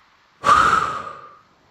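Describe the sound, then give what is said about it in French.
A single forceful breath blown out through the mouth during a breathing exercise, after inhaling through the nose and holding the breath with the whole body tensed. It is loud, starts abruptly and tapers off over about a second, with a faint whistling edge to the rush of air. “Contractez l'ensemble de votre corps en bloquant votre respiration Soufflez fortement par la bouche pour évacuer toutes vos entraves.”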